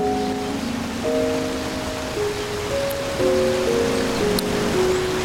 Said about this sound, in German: Okay, ein Wasserfall.